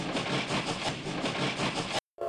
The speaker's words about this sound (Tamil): ரயில் காட்டு யானை பிளிரிக் கொண்டு வருவது போல நிலையத்துக்குள் நுழைந்தது